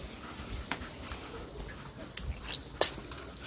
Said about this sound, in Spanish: pueden escuchar eh, un pajarillo, como ese que, escuchan por allí